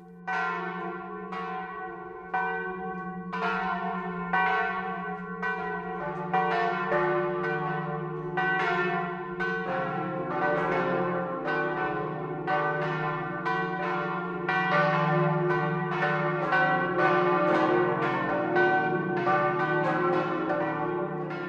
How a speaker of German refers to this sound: Die fünf Glocken von St. Joseph, 1947 in München gegossen, klingen weit hinaus ins Tal der Schwarzach und über die Höhen des Oberpfälzer Waldes.